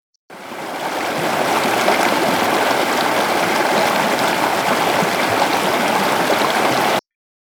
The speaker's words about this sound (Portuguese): Uma caixa de água está totalmente cheia, enquanto a outra está com menos de metade de sua capacidade completa. Ao abrirmos o registro da caixa d'água cheia, ouvimos o seguinte som.